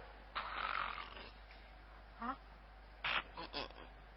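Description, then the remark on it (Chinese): A storyteller's voice imitates the snoring of the story character Luo Yuan, who has fallen asleep: one long, raspy snore, then a pause and a few shorter, breathy snorts in quick succession, fairly loud with no words spoken. “他先给睡着了， 黄姑一听呀，怎么听见有打呼噜的声音？”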